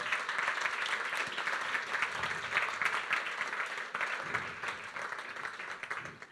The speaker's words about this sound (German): Ähm, genau, und ich würde einfach unsere Podiums, äh, Gäste der Podiumsdiskussion einfach schon mal auf die Bühne bitten, ähm, dass sie Platz nehmen. Ich glaube, ich. Ja, genau. Applaus. Sehr schön.